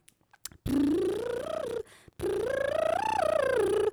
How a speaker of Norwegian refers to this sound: og så mens jeg har gjort sånn lepperull